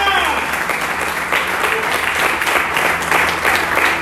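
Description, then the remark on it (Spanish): An audience at a morning service applauds loudly for Jesus Christ, a dense, steady wash of many hands clapping that holds for about four seconds, with a few voices faintly mixed into the noise. “Jesucristo, el que está sentado en el trono de gloria, al que le pido que le dé un fuerte aplauso en esta mañana.”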